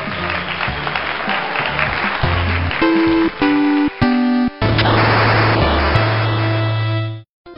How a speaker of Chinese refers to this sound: 让我们掌声有请两位小选手闪亮登场。